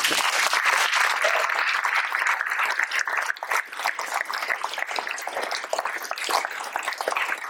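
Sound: audience applause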